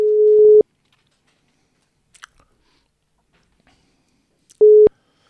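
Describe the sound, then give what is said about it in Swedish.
A telephone ringback tone: a steady, loud mid-pitched beep, then about four seconds of near-silence with a faint click or two, then the same beep again. No one speaks. “Eh, ja, men, så jag tänkte så här, vi, vi ringer väl upp han.”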